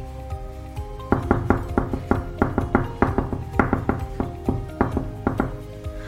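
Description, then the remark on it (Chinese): Repeated knocking on a door, sharp hollow raps in quick clusters of two and three, continuing for several seconds over a faint background tone. “啊，是有几个人在外面敲门啊！”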